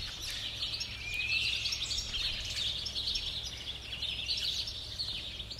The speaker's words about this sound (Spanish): lo primero que detecté nada más empezamos el encierro y continúa aún es que escucho los pájaros como si, como si estuviese en mitad del monte.